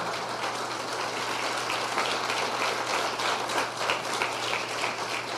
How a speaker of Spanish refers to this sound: Amén, dale el aplauso más fuerte al Señor.